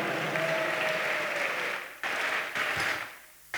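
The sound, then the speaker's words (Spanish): An audience at a church service claps together for God in a dense, steady burst of loud applause lasting several seconds, with a faint voice or cheer threaded underneath. “Denle un fuerte aplauso a nuestro Padre.”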